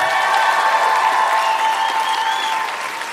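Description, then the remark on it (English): A live crowd applauds loudly, dense clapping with some cheering and whistles mixed in, sustained throughout and easing off slightly at the end. “Make some noise for the intercept, everybody”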